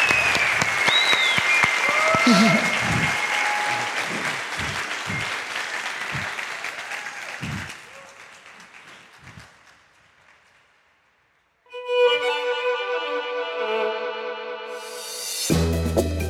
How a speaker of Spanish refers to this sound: Gracias, Sile. Un aplauso.